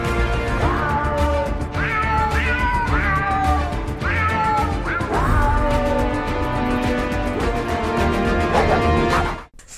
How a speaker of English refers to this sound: The fucking meows. I was wheezing. Meow, meow, meow, meow.